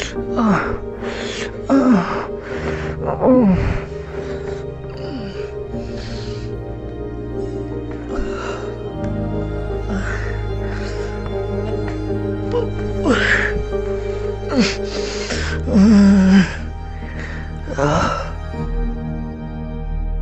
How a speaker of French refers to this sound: un site qui s'appelle Bibliothèque des orgasmes réels et qui accumule, en son uniquement, hein plein d'enregistrements d'orgasmes